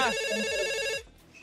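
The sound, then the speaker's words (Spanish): A telephone rings with a bright, steady electronic trill for about a second as an incoming call arrives for a call-in sound-guessing contest, then cuts off abruptly, leaving quiet background. “Vamos Gracias, a otra llamada, otra, otra, venga.”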